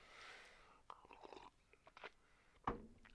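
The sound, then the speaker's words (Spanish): Quiet mouth sounds of someone sipping water, with small wet clicks and a louder gulp near the end as they swallow. “dejen, dejen tomo poquita agua.”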